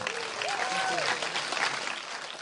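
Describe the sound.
An audience breaks into steady, dense applause lasting the whole moment, with a few raised voices and a brief whoop rising over the clapping early on.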